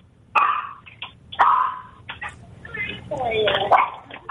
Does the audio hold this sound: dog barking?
yes